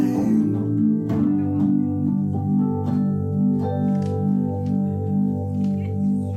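A recorded song plays steadily and fairly loud, with full sustained harmonic chords over a pulsing, rhythmic bass line and occasional sharper accents; no one speaks over it.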